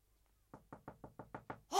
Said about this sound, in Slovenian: V razredu je popoln mir. Potrkal bom.